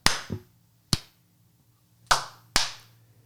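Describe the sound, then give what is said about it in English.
A handful of sharp, loud hand claps in an irregular pattern, some spaced apart and a couple in quick pairs, each snapping bright and dying away fast. No one speaks. “Clappy claps.”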